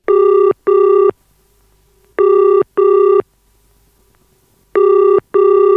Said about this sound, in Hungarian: Igen, arra a pillanatra gondolok, amikor az újra választott magyar kormányfő titkárságán a várban megcsörren a telefon. Furcsán idegenül cseng nem a megszokott pegazusos visszhanggal, hanem érzékelhetően távolsági hívás.